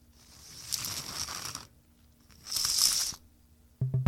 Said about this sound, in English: Did you figure out what that sound was? That was the sound of a tape measure pulling it out and then letting it go letting it retract back in.